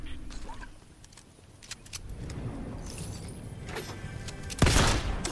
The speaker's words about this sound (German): Digga, ich bin aus Versehen auf die Taste gekommen und zwei Schuss verschwendet.